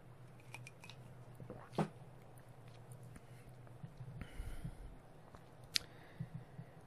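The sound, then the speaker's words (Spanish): A quiet sip of soda, with soft mouth and swallowing noises and a couple of sharp clicks of the drink container, over a low background hum and no talking. “Voy a beberme un traguico, que no he parado de hablar, eh.”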